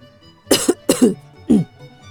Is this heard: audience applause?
no